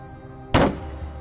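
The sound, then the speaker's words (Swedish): A single sharp, loud whack of a cane slammed down on a wooden school desk, with a brief ringing decay against a quiet background. “Madame Koikoi hade slagit ner sin käpp på skolbänken snett framför mig.”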